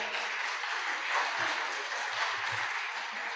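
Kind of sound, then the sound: crowd, audience applauding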